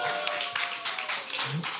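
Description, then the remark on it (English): A crowd applauding the live team, steadily: a dense wash of many hands clapping at once that holds at an even level throughout, with a faint voice or cheer surfacing briefly near the end. “Come on, y'all make some for the live team.”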